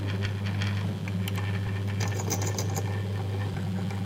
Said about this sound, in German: bereits bohre ich jetzt schon. Also die oberste Schicht wird schon abgetragen.